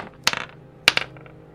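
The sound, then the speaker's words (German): Twenty-sided dice rolled twice in quick succession for a wisdom check, each a sharp clack followed by a short patter of bouncing rattles on a hard surface, fairly loud, with no voices. “würfelt mal alle drei Weisheit, ob euch das bekannt vorkommt. Mit W20, ja?”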